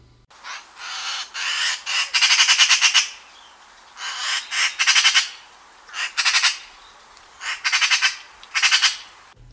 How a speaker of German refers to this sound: Ja, was ihr da gerade gehört habt, das war eine Elster. Die Elster ist ja so im Volksglaube die diebische Elster, die alles Glänzende klaut.